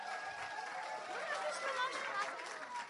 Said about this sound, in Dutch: Oké, ga ervoor. Even, even een groot applaus geven. Woe!